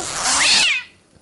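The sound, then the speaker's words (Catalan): A single loud cat-like meow, meant as a pigeon's cry, a drawn-out cry that swells and then trails off in under a second, heard on its own with no talking. “Això és un gat, no és un colom, no?”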